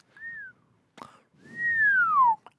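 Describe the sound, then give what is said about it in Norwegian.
A person whistles two clear notes: a short, gentle tone, then after a brief pause a longer, louder note that slides steadily downward in pitch, with a soft click in between. “Nei, ikke plystre.”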